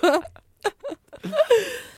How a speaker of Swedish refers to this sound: Vänta, jag måste bara stänga fönstret, jag har massa skrikande barn här från källaren. jag tror att jag, jag, tror jag hörde ett av dem tidigare.